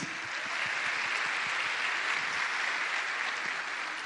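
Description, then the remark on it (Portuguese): An audience applauds Jesus steadily for about four seconds, a dense, even wash of many hands clapping at constant loudness with no voices over it. “Esses aplausos não são para mim, não.”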